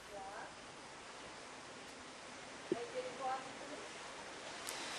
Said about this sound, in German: Zu viel Wasser, dazu muss man sagen, es regnet hier, das sieht man vielleicht auch hinter mir seit Stunden schon.